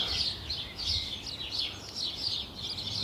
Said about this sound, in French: mais là, euh, c'est un mâle qui est bien installé sur sa branche. Donc là, on est sur le moineau de Paris, hein. c'est chip, chip, chip, chip répété sans arrêt.